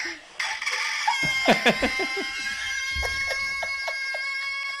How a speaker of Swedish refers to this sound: Det här är ju ingen idyllisk morgontupp. Det här är ju en nervös tupp ju.